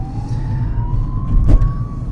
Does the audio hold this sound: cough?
no